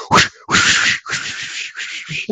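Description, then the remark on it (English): A voice imitates a game's sword-stab sound effect that retriggers rapidly while the button is held down: a quick series of harsh, breathy bursts, four or five in a row, fairly loud. “But if you like if you stabbed the sword and just held the button down, it would like rapidly trigger the sound effect over and over again.”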